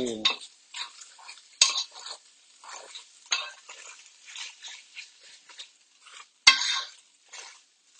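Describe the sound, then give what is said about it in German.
Minced meat sizzles and crackles as it browns in a hot pan, with a steady hiss broken by occasional sharp scrapes and clinks of a utensil stirring it. No one speaks. “So, jetzt lasse ich noch ganz bisschen anbraten.”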